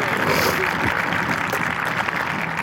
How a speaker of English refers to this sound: So let's give a round of applause to my second service. I love you guys very, very much.